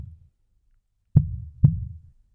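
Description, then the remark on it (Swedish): A heartbeat recording presented as the pulse of Liberal Party politician Nyamko Sabuni, with two deep, thudding pulses about half a second apart, each with a sharp onset and a low rumbling tail, moderately loud with no talking. “Vad hör ni när ni lyssnar på den här pulsen?”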